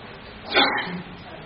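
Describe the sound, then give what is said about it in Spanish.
A single sharp sneeze bursts out, brief and fairly loud, with a hissy breathy edge, then fades into a quiet background hum. “Salud.”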